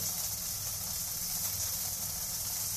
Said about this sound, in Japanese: 今鶏肉の両面を焼いてます焼き色がしっかりついて